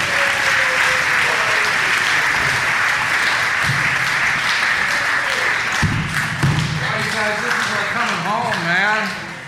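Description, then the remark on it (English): Loud, sustained applause from an audience, a dense wash of many hands clapping that fills the whole clip, with a few whoops and cheering voices rising through it near the end. “so please clap for”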